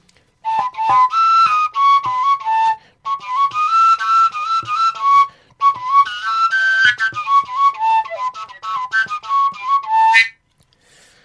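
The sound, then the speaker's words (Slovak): A breathy overtone flute plays a quick melody in three phrases, high whistling tones hopping between pitches as the end hole is opened and closed, with brief pauses between phrases. “Druhý spôsob ovládania je, že zatvoríš koncovkový otvor, preto to niektorí volajú zaklapka, že zaklapávaš ju.”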